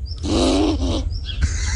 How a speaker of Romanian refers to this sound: Un pug care doarme.